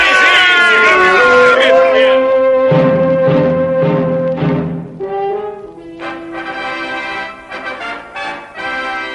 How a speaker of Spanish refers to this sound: ¿Qué significa ese sonido de trompetas, Gedeón?